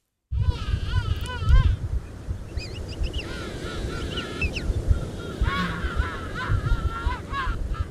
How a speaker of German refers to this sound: War das jetzt ein Eselspinguin, Zügelpinguin, Goldschopfpinguin? Königspinguin. Königspinguin. ja. Das sind die, die da am meisten sind, oder? Genau.